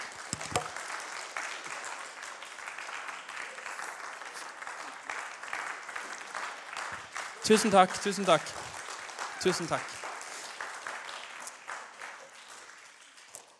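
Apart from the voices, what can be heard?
audience applause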